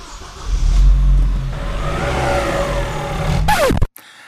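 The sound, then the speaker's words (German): A car engine revs up loudly, its low rumble climbing in pitch over a few seconds before a sharp whine and an abrupt cutoff. No one speaks. “Das ewige Motorenlärm auf unseren Strassen.”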